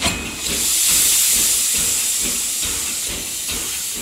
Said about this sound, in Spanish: Por ejemplo, podríamos estar delante de una máquina de vapor. O tenerla elevada frente a nosotros y levemente a la izquierda.